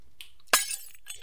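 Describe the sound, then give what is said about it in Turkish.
A coffee cup, handed over in the dark after a sudden power cut, drops and shatters on the floor in one sharp crash, followed by a brief scatter of clinking fragments before it fades to quiet. “Tut diyorum yere düşürüyorsun.”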